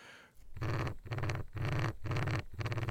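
An electronic mobility cane device hums in five evenly spaced buzzing pulses, each about half a second long, fairly loud, with no voices present.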